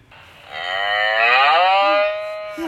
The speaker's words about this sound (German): Also man sieht immer das entsprechende Tier, in dem Fall die Kuh. Oh, da kommt die Kuh als erstes. Und die macht? Wenn man draufdrückt.